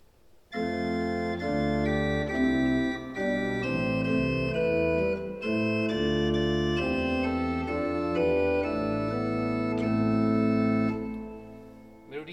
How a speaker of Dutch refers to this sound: In liedboek 2013 vinden we onder 467a de introitus-antifoon voor de kerstnacht bij Psalm 2, Dixit Dominus. God sprak tot mij, mijn zoon ben jij, ik riep je heden in het leven. Klinkt zo.